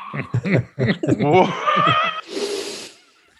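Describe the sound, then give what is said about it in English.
A person chuckles and makes voiced sounds, then pushes out one long, forceful, breathy 'haaa' exhale, a lion's breath yoga exhale done with tongue out and eyes slightly crossed, fairly loud, which fades quickly into quiet. “It's a yoga breath.”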